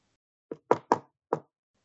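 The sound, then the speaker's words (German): Four crisp knocks on wood tap out the opening of the shave-and-a-haircut rhythm, then stop before the phrase is finished. No one speaks. “Das heißt, Shave in the Haircut, Two Bites.”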